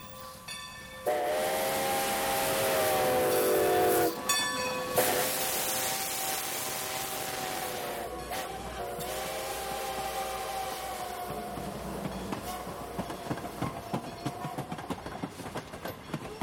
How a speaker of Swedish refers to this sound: Tåget vi hörde var The Strasbourg Railroad på väg till Strasbourg som ligger alldeles här intill.